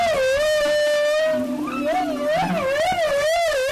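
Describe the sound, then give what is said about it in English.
A humpback-style whale song phrase, the first theme, often sung after the whale dives: a sustained tonal moan with rich harmonics that wavers and undulates in pitch, joined by lower grunting pulses midway, continuous and fairly loud. “Scientists don't know why the composition of whale song evolves from season to season.”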